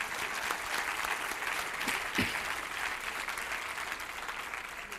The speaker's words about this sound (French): oui, on peut, je pense qu'on peut les applaudir.